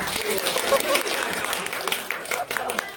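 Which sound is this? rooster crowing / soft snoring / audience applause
audience applause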